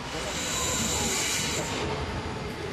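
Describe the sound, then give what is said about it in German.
A subway train rumbles steadily through the Sendlinger Tor U-Bahn station in Munich, Germany, with a broad low roar, metallic hiss and faint high squeal from the wheels, loud and continuous throughout. “Der Münchner U-Bahnhof Sendlinger Tor.”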